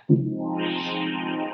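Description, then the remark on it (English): A Yamaha CS synthesizer, controlled from a Nord keyboard and connected to an audio interface, holds a single rich, buzzy note that starts abruptly, then brightens as its filter sweeps open, sustaining steadily and fairly loud with no voices. “So that's coming technically out of the Yamaha. It's my Nord's controlling it, and it's hooked up to my interface right now.”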